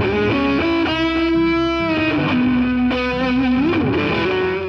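A distorted electric guitar plays loud sustained notes and chords, with a pitch bend toward the end. The tone is thick and effects-heavy, and no one talks.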